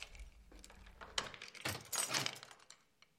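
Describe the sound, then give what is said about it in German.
Keys jangle and scrape in a door lock as a mother locks the family's apartment door, followed by a few sharp metallic clicks. Short, rattling bursts of fairly quiet sound with no talking. “Mama schließt die Türe zu unserer Wohnung ab und sagt dann, ich habe abgeschlossen.”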